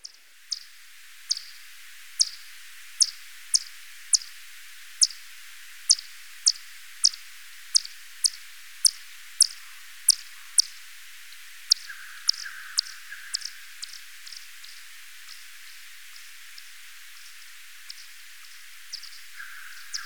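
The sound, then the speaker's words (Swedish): Recorded calls of a Natterer's bat (fransfladdermus) played back: a steady series of short, high-pitched chirps sweeping downward, about two per second, growing fainter and more irregular toward the end, with no voices. “Eh, någonstans har jag nog en Frans fladdermus liggande.”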